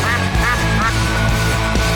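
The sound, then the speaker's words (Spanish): Ducks quack loudly and repeatedly in a rapid, agitated series of harsh calls as they fight, continuous, with no talking in between. “Cuidado, pato. Dele, dele, cuidado con el pato, huevo.”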